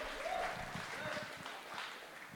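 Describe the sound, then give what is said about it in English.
Sustained audience applause, a dense wash of many hands clapping at steady loudness for a couple of seconds, with a few cheering voices mixed in. “Let's give him a big, big round of applause for that.”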